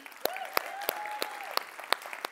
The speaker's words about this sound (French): On les applaudit.